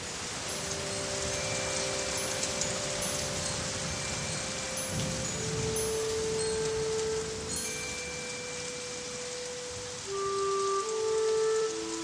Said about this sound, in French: C'est alors que de gros nuages couvrirent le ciel et firent tomber la pluie.